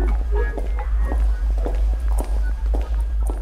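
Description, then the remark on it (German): Steady footsteps of two people stride across a hard stone floor inside the US Army Center of Military History, each step a sharp tap with a short echoing tail, over a constant low hum. “Unsere Schritte hallen auf harten Steinböden.”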